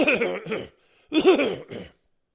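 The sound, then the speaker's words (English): A person coughs twice, two short, rough bursts separated by a brief pause, with no talking around them. “Sorry for that cough.”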